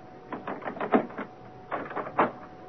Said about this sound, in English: Unlock the door.